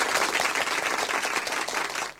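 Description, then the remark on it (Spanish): Steady, dense applause from a crowd on a live vinyl record as it starts playing, many hands clapping at once in a bright, crackling wash that holds at an even level for a couple of seconds with no voices. “Y sí, señoras y señores, acaba de entrar, muy fuerte ese aplauso.”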